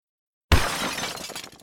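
A sudden cracking and shattering burst, like ice breaking apart, starting sharply after a brief silence and trailing off in scattered crackles and debris.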